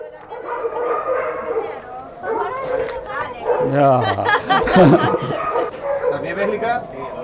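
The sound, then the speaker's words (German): Several dogs in transport boxes bark, yip and whimper in an overlapping, restless chorus as drivers sort them into the boxes and secure them, with loud high yelps bursting out midway and indistinct voices murmuring underneath. “Die Fahrer, die die Hunde in ihre Boxen sortieren und sichern.”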